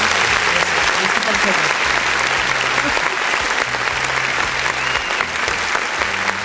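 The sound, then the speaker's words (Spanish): Sustained applause from a sizable crowd congratulating those who still have grandparents, a steady dense clatter of many hands clapping at an even loudness throughout, with a faint low hum underneath. “Yo ya no tengo abuelitos, amigos, pero los que sí tienen, muchas felicidades, aplausos, pues, por favor”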